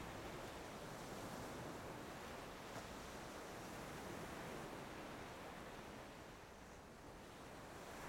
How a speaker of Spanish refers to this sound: Gracias por la relajación y la calma que me provoca el sonido de las olas del mar, por la hermosa experiencia de libertad y soltura que me regala al solo pararme frente al mar o sumergirme en sus olas.